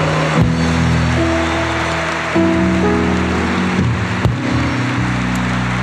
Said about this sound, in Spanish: Eso es darle un fuerte aplauso a Él. Él se merece toda la gloria.